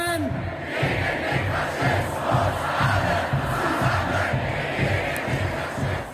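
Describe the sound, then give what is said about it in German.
A large crowd at a street demonstration against the far right in Germany chants slogans in unison, many voices shouting in a steady, rhythmic pattern that repeats throughout, loud and dense. “Millionen Menschen teilen da ihre Ansichten mit Sprüchen, die sie rufen oder eben auch auf Plakaten und auf Fahnen schreiben und malen”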